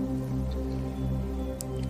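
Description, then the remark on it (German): A few scattered raindrops, soft and sparse, fall from above over a steady, low sustained drone. No one speaks. “während sie in diesem Pool sitzen und die angenehme Wärme am ganzen Körper spüren, beginnt es von oben zu regnen.”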